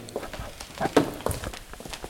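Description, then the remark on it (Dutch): Footsteps walking at a steady pace indoors to an office at the HCO, a quick run of soft, regular taps and scuffs, with a faint room murmur underneath. “We lopen naar mijn kamer.”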